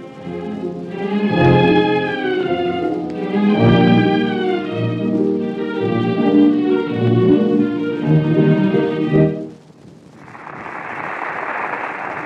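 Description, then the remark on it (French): Orchestral music plays for about nine seconds, then stops as the curtain falls and a theatre audience breaks into dense, steady applause for the opera's corps de ballet, a loud wash of clapping that continues to the end. “Le public applaudit à tout rompre le corps de ballet de l'opéra, le premier du monde, qui s'est surpassé.”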